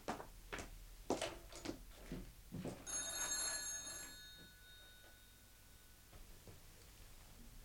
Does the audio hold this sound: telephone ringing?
yes